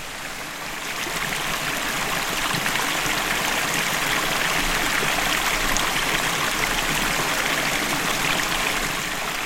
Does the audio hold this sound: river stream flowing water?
yes